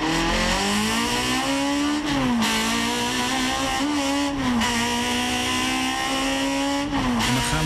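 A BMW 2002 Turbo car engine revs loudly and steadily, its pitch climbing and dipping through several gear-like shifts, with a rich harmonic growl and no one talking.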